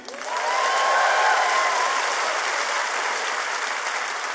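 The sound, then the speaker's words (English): An audience breaks into steady, dense applause as Oakland storyteller Don Reed is introduced, swelling within the first half second and holding at a loud, even level, with a brief whistle-like tone rising over the clapping early on. “clap for you. Clap for you.”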